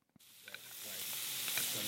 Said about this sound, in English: It's culinary practice at Wilbur Cross High School, and time is running out. One student spoons butter onto scallops sizzling in a pan.